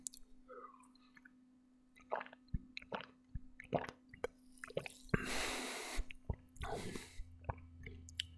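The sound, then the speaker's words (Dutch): Quiet slurping sips of a fizzy, cola-flavoured drink, with small wet clicks and squishes from the mouth, a couple of breathy sucking bursts, and a swallow, no talking. “En ik ga zo'n slokje nemen.”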